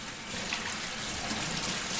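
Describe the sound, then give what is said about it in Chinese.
Water runs steadily from a tap into a kitchen sink while a cup is being washed, a continuous bright hissing splash that holds an even loudness throughout, with no voices. “好，如果你已经猜到的话，很棒，这是水槽哦。”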